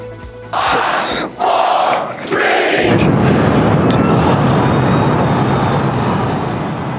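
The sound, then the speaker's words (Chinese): A crowd of long-waiting space fans cheers and shouts loudly, the roar rising in waves, as SpaceX's Starship, the largest rocket ever built, lifts off from the Boca Chica base in Texas at 8:33 a.m. Central Time on a Thursday; a deep, continuous rocket rumble swells beneath the cheering and holds to the end. “等待已久的太空迷高声欢呼，见证着历史性的一刻。”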